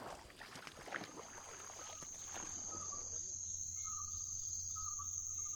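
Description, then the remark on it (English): A small boat crosses the Katang River in Vietnam to a Maliang village, with splashing water early on and a low steady hum, while insects buzz loudly and continuously. “So instead, they have a boat.”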